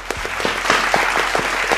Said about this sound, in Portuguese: salve de palmas